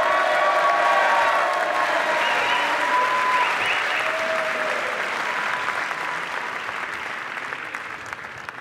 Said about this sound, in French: Je vais maintenant appeler euh, Charles-Henri Gallois, qui est euh, responsable des questions économiques à l'UPR. Un grand applaudissement pour lui.